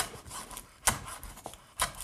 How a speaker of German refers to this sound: Gut, jetzt haben wir das vor uns liegen. Jetzt hacken wir das auch nochmal durch. Ich mag es nämlich nicht, wenn man da auf so ein großes Stück beißt.